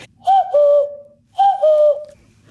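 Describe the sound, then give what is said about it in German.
A person imitates a cuckoo call, whistling two clear two-note "cuck-oo" phrases about a second apart, the first note higher, the second lower and held, fairly loud. “Im Comic lernt Kerstin ja den Kuckucksruf von ihrer Großmutter. Können Sie den eigentlich auch nachahmen”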